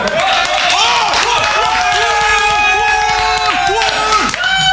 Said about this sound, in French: Les gars, je vous demande tout d'abord des applaudissements pour vous, puisque vous êtes le seul public de cette émission.